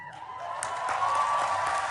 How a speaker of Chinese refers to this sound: 联合国大会中的成员们听到这个消息的宣布，全场大声欢呼。